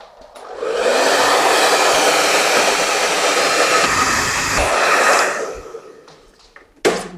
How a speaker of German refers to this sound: ja, und jetzt kann uns auch erstmal kurz keiner mehr zuhören, weil ich müsste die Haare föhnen.